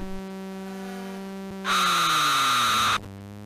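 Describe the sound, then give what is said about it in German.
Sounds of a 1980s Atari arcade Formula 1 racing game: a steady synthetic engine drone with a descending pitch, joined midway by a loud burst of harsh buzzing electronic noise that cuts off abruptly. “So klang es, früher Formel 1 zu fahren.”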